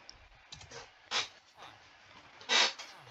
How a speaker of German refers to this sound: So, sorry, wenn ihr gerade meinen Stuhl quietschen gehört habt. Ah, komm schon, Stuhl, das gibt's ja nicht.